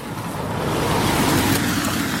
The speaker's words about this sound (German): Und dann äh, kommt so das zweite Auto.